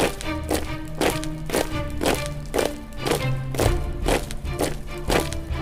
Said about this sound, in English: When you hear this marching sound, I want you to march. If you're in your car, you can just pat your hands on your lap like it's footsteps.